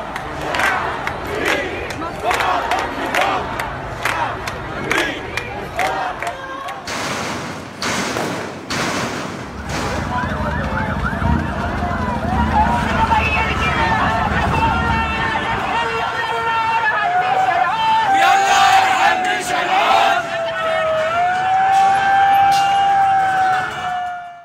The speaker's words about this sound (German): Lass uns hier vielleicht einfach nochmal hören, wie sich das im Moment anhört, was du beschrieben hast auf den Straßen. Die Proteste, die Wut, die aus der Verzweiflung geworden ist, die Demonstrationen. Wir hören uns das mal kurz an.